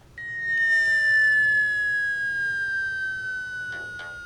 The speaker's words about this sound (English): I really like the sound of this this bomb being dropped.